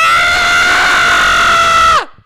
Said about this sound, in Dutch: Maar zo heb ik nooit gegild in Trolls.